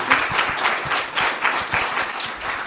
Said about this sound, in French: Vous pouvez l'applaudir d'ailleurs, n'hésitez pas.